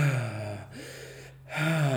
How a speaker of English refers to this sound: you can control that breathing that allows you to get more oxygen which helps you create more energy which allows you to not spend the energy so fast